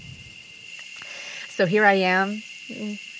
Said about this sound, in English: I wonder if you can hear the orchestra of sounds in the background in the middle of the Costa Rican jungle.